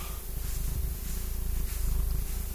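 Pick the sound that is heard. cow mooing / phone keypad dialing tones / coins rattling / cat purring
cat purring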